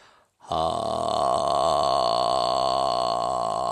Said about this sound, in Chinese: 另外，用淡盐水漱喉，这个呢出门之前和回家之后各做一次，很简单，含一口淡盐水，仰起头，让盐水保持在咽喉部，然后微微张嘴。气流从咽喉部慢慢呼出，发出“哈”这个音